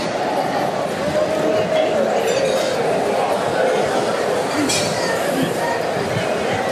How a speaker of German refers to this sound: Aber so klingt's im Bierzelt. Rechts, rechts von mir die Küche sozusagen. Tausende von Brathändlern auf dem Spieß, alle schon fertig. Absoluter Massenbetrieb.